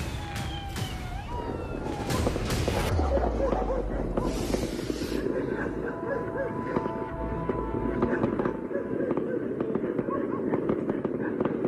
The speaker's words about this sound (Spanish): La noche anterior, quienes velaban a Ñahu ya habían mostrado su poder con balazos y fuegos artificiales, atemorizando a los vecinos de los cerros de Valparaíso,